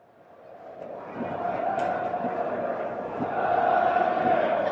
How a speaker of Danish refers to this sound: Og så bliver der helt stille på stadion. Martin! Råber speakeren. Og hele stadion råber med på efternavnet